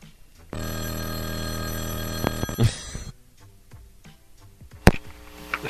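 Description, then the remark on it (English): A telephone rings loudly for about two seconds with a steady, buzzing electronic tone as a call from UPS comes in, then cuts off, followed by faint clicks and a brief sharp knock near the end. “This is UPS calling me, guys.”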